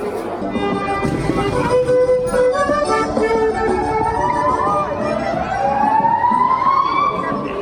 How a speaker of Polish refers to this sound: I dołączyli do chóru policjanci! którzy harmonizują pięknie swoimi syrenami w tonacji D-dur